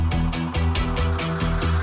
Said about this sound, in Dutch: Terwijl hij op de vlucht was voor Nijlganzen in Antwerpen. Nijlganzen aan de Schelde.